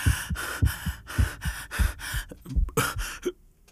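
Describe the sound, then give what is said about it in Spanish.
Strained, choking gasps as a person tries to cough, with earth coming out of the mouth, come in a rapid series of harsh breaths, fairly loud, with no talking, ending in a sudden stop before a short silence. “Intento toser y me sale tierra de la boca.”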